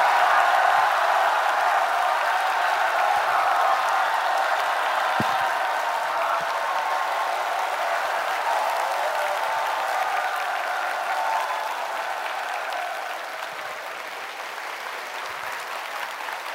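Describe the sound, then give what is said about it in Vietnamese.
A group of people in a hall clapping their hands as a practice exercise, in sustained applause, a dense crackling wash of claps that stays steady and fairly loud, easing off slightly toward the end. “ok sau khi mình đã luyện được mồm rồi thì bây giờ mình luyện tay vỗ này một số người vỗ tay uh.”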